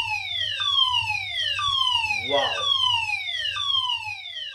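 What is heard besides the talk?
fire alarm going off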